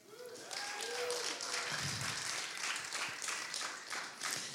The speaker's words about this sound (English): This church has perfected the golf clap. I mean, it's like it's solid. It's just like, wow, great job.